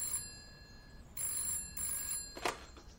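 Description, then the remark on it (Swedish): A telephone bell rings in repeated metallic bursts with short gaps between them, clear, in the KFML bookshop in Gothenburg on a spring day in 1973, and a brief sharp clatter follows at the end. No one speaks. “En vårdag 1973 står partikamraten Harald Holst inne på KFMLs bokhandel i Göteborg när telefonen ringer.”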